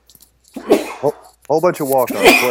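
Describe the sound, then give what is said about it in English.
A single sharp sneeze bursts out near the start, followed right away by a man talking. “Bless you. There we go.”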